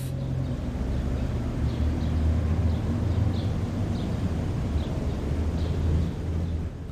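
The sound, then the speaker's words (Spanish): Faint, scattered bird chirps repeat every second or so, high and thin, over a heavy, constant low rumble of city traffic. Nobody speaks. “Sonido, aves en la ciudad.”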